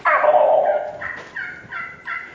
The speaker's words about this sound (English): I'm going to let him gobble. I want him to hear that. And that old gobbler's over on that limb.